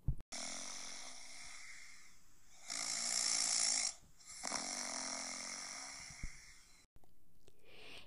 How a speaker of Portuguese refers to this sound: e o Deus do céu não parava de roncar.